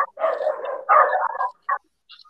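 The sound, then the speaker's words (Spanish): A dog named Firulai barks with a couple of long, drawn-out harmonic barks followed by one short yip, fairly loud, with no talking around it. “Se escucha Firulai ah, bueno.”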